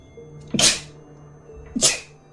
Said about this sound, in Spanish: Voy a estornudar, no quiero estornudar.